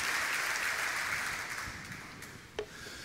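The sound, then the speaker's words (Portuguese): An audience at a religious sermon applauds steadily as a round of applause to the Lord, a dense wash of many hands clapping that gradually thins and fades, with one sharp, louder clap standing out near the end. “Quem está recebendo essa profecia, pode dar um glória a Deus aí, dá uma salva de palmas ao Senhor, em nome de Jesus.”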